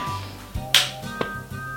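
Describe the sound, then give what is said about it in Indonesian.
A single sharp hand clap rings out, followed a moment later by a fainter second clap, over a steady low hum and faint tonal background. “gak usah tepuk tangan ya”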